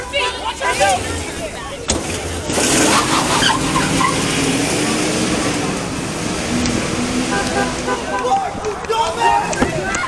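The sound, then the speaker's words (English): A truck swarmed by a mob revs and drives away, then crashes in the chaos, with a sudden sharp bang early on and constant loud crowd shouting and noise throughout. “The truck drives away, and in the chaos, ends up crashing.”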